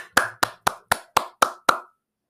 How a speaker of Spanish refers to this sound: Ugur Sahin, Oslem Tureci, Dreklin Brosi, Sara Hilbert estos son los nombres de las personas que han estado detrás de todo este proceso de vacunación, de este proceso de sanidad, de, vuelta a la normalidad en el mundo. Un aplauso, por favor, hermano.